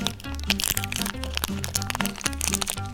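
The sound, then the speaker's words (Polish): Continuous crinkling and crackling of a plastic candy wrapper being handled, with dense irregular snaps over a steady low tonal hum or music beneath. “Gdybym miał stopniować, co najbardziej podnosi ciśnienie, to na miejscu trzecim ustawiłbym szelest papierków na równi ze smrodem jakiegoś domowego żarcia.”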